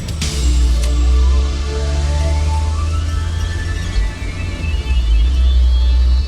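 car driving

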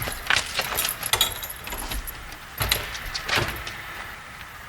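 keys jangling

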